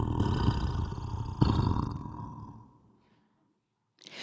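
A deep, eerie monster growl, the sound of headless creatures talking among themselves in an abyss on a summer evening, rumbles loudly for about two seconds, swells again midway, then fades into silence before another rough burst starts at the very end.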